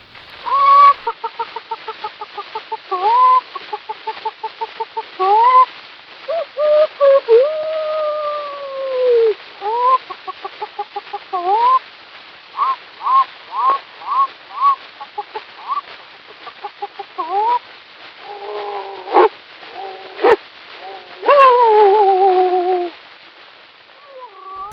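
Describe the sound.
A man imitates animal noises with his mouth, mostly rapid clucking bursts and drawn-out crowing calls, one after another on a thin, tinny, hissy 1889 recording from a small 5-inch disc, with no talk.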